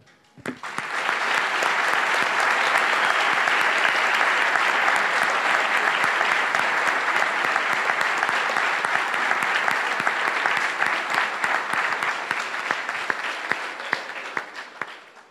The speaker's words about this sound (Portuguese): Nós vamos aplaudir a Jesus que fez isso com a vida dele.